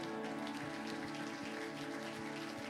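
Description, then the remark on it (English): A church audience claps their hands in praise to the Lord one morning, a dense, steady wash of applause that holds at an even level throughout, with no voices rising above it. “Let's give that hand clap of praise to the Lord this morning.”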